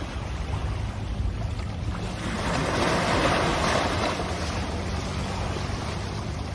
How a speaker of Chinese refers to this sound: 你会听到附近有船的声音，很远，嗯的声音有吗？